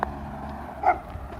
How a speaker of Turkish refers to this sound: Ya susun köpekler ya. Bunlar bir de saldırıyor arkadaşlar. Ablama da saldırmışlar galiba geçen.